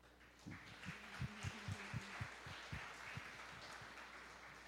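An audience breaks into steady applause for the technical crew running the sound. Many hands clap in a dense wash, punctuated by a series of heavier, thumping claps standing out in an uneven rhythm. No one speaks.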